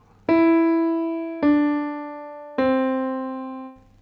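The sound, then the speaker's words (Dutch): Three sustained notes, the first notes of a major scale played descending, step slowly downward as a slowed song melody, each ringing clearly for over a second before the next begins, with a bright, pure, organ-like tone and no voices. “Als je het melodietje wat langzamer speelt, klinkt het zo.”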